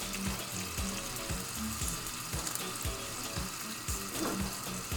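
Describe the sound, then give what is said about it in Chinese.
Shrimp fry in a pan, being browned and turned over, with a steady, dense sizzle and crackle throughout, punctuated by repeated soft low thumps. No one speaks. “如果还有一些其他材料，比如说洋葱、蒜头，也可以在煎完之后，然后呢再爆香。”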